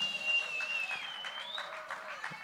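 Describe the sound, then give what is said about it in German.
An audience applauds during the introduction of the members of a band, with dense, steady clapping that holds at an even level throughout, with a thin high-pitched whistle-like tone running over the noise. “ihr könnt ja gerne Applaus geben.”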